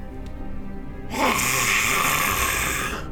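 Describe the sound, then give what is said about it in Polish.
A person imitates a cat's hiss with one sustained, breathy, airy burst lasting about two seconds, loud and steady before fading out, following a moment of low background murmur. “Harczy na ciebie jak kot.”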